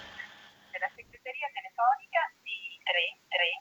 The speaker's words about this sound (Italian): Vediamo. Chiamo un telefono, uno smart.